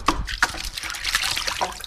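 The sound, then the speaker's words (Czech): A hand dips into a container of water where rattan cane is soaking for basket weaving, stirring up a series of small splashes and sloshing sounds over about two seconds, with no talking. “No, vyda, pět minut uteče jako nic, už si jdeme šáhnout do té vody.”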